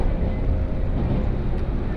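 Steady, loud low rumble of a 117 series local train on the Kosei Line, running from Kyoto toward Ono, heard from inside the carriage, with continuous wheel and motor drone and no distinct breaks throughout.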